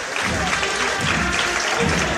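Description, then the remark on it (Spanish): A crowd in the street applauds steadily as Triana costaleros carrying the Tres Caídas step backward, a dense, continuous wash of clapping at an even loudness, with a faint voice murmuring underneath. “Y ahora un paso hacia atrás, como decíamos, los aplausos.”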